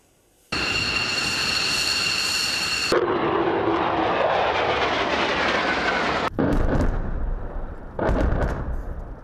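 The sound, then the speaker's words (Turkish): Loud military jet engines roar in quick succession, a high turbine whine giving way to thunderous rushing blasts as the jets power up and take off one after another during the Claw-Sword military operation, with no voices. “Jetler peş peşe havalandı, teröristlerin sığınakları yerle bir edildi.”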